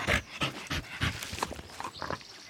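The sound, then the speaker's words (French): Dogs pant in quick, rhythmic bursts, short breathy huffs with a few snuffling sounds mixed in, as they eagerly devour pieces of bread at a table. No one speaks. “Vos chiens mangent-ils du pain S'ils mangeaient du pain, je leur en donnai à chacun un morceau qu'ils dévorèrent”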